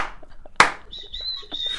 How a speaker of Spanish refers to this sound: Ella tiene que silbarle a Panchi porque la casa es muy grande.